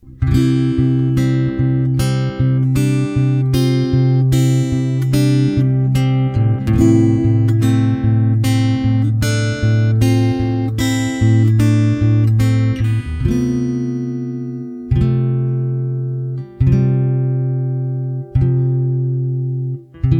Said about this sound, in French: là, je viens de vous le jouer euh, rapidement à la guitare, mais euh, l'effet est le même dans le, dans le titre, c'est-à-dire qu'on a vraiment une mélodie qui, sonne presque naïve jusqu'au moment où arrive ce point de rupture